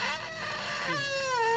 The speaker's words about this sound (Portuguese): é o peido com eco na porcelana, o primeiro do grupo Vida e Saúde